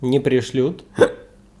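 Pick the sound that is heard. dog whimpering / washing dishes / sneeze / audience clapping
sneeze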